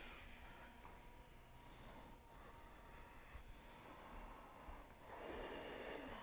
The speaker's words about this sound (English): Generate the sound of your breath from your throat. You want to make your throat like a sound box. The air is entering and exiting the nostrils, but the sound comes from your throat.